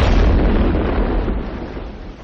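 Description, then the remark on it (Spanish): A single deep, booming blast as the war cruiser Aurora fires a blank salvo from its cannon, the signal to storm the palace. It is loud, with a heavy low rumble that slowly decays over a couple of seconds. No voices are heard. “El crucero de guerra Aurora efectúa un disparo de salva”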